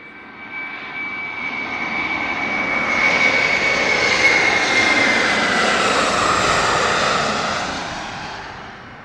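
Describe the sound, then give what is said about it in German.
Steady airplane engine drone in flight on a trip to see islands, a broad roaring hum with a faint high whine, swelling gradually louder through the middle and easing off toward the end. No voices. “Lass uns nochmal in den Flieger springen und vielleicht noch ein, zwei Inseln anschauen.”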